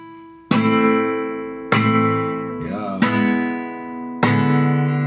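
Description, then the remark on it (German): Four sharp flamenco guitar chords, each struck with a percussive golpe tap on the body, ringing out loud before the next hit, evenly spaced with no talking. “So klingt es dann, wenn eine Golpe mit dabei mhm. ist.”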